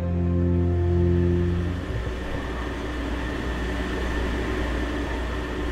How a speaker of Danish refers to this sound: Det her er lyden af turen til Samsø. Jeg står på dækket af færgen Prinsesse Isabella, og det er et sted, jeg har stået mange gange før.